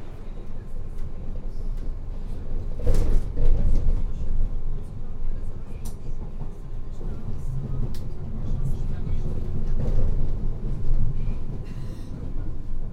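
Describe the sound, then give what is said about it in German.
A train rumbles across the Oberbaumbrücke over the Spree in Berlin, its heavy, steady low roar loud, with occasional metallic clanks and rattles rising briefly above the continuous drone. “Jetzt geht's über die Oberbaumbrücke. Und ja, vielleicht durchzog genau an dieser Stelle der Zaun die Gleise und teilte die Bezirke Kreuzberg und Friedrichshain.”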